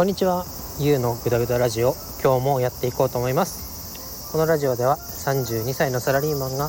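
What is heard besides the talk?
cicadas chirping outdoors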